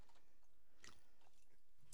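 Quiet sipping from drinks by two people at the same time, a few brief wet mouth noises and slurps scattered over two seconds, with one slightly sharper sound near the end and no talking.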